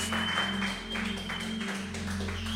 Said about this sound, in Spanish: Un aplauso también otra vez para ellos.